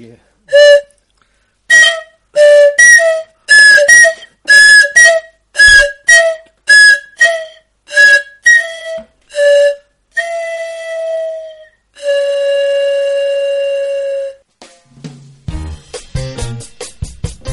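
A series of sharp, piercing pifilca whistle blasts, repeated in quick bursts, then two longer sustained shrill tones, loud, followed by a brief rumble at the end.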